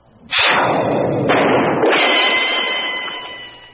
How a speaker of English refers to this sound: A gun was pulled. A shot rang out. I said a shot rang out. That does it. A gunshot rang out.